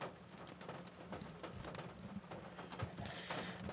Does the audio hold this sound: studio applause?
no